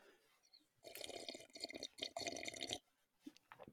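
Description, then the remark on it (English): Someone takes a long, loud slurping sip of coffee from a mug, the noisy draw lasting about two seconds, followed by a few quiet swallowing sounds. “Speaking of, let me just take a big old sip of my coffee right now.”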